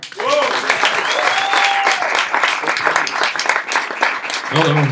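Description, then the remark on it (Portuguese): A crowd claps loudly and steadily, with whoops and cheering voices rising above the dense applause at the start, midway and again near the end. “Mas é isso aí, mais barulho pro ele bravo.”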